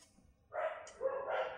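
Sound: dogs barking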